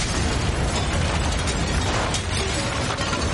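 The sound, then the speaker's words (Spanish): A house explodes in a loud, sustained blast, a dense roaring rumble with crackling debris that stays steady and powerful for several seconds, with no voices. “La casa explota.”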